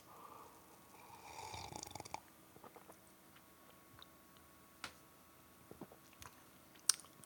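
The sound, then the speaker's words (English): A quiet slurping sip of pilsner beer lasting a second or so, followed by soft swallowing and a few faint mouth clicks and small taps, with no talking. “There's a lot of things to say, but before I say any of them, I need to have another sip.”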